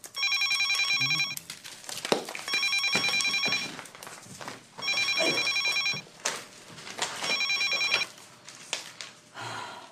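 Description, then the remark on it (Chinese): A telephone rings in four long bursts of bright, high-pitched electronic trilling separated by short pauses, with faint shuffling and movement noises between the rings. “接个电话。”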